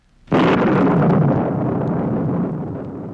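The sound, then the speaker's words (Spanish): A single loud thunderclap cracks in suddenly after a flash of lightning in the sky, then rolls on as a heavy, broad rumble that slowly fades over a few seconds, with no voices present. “En el cielo brilló una espada de luz y estalló un trueno.”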